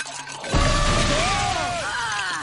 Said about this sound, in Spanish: La lata estalla y vuela un coche policial. ¡Eh! El Joker acaba de volar nuestro coche.